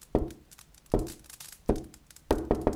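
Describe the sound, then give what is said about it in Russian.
Knocking on wood: three evenly spaced, solid thuds, then a quicker run of three at the end. The hits are fairly loud and dull with a short ring, and no one speaks. “Послышался стук.”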